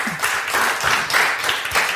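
Steady applause from a small group, a dense wash of overlapping claps at a fairly even loudness for a couple of seconds, with no one speaking over it.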